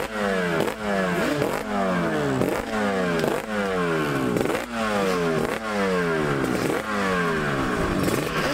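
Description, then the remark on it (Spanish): A two-stroke motorcycle engine revs loudly in quick, repeated bursts, roughly nine throttle blips in a steady rhythm, its buzzy, raspy pitch sweeping up and dropping each time. No one speaks. “Entonces, rememorar motos emblemáticas como la RD3 y medio, eh, automáticamente yo escucho el sonido de, un dos tiempos y eso a mí me pone, la verdad, me pone.”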